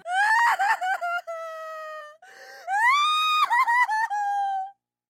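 A child sobs and wails in distress, with high, quavering cries rising and falling in long breathy bursts, loud, with a brief choked pause in the middle.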